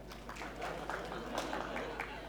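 A short stretch of audience applause, a steady patter of many hands clapping at fairly low volume over a faint low hum, with no voices.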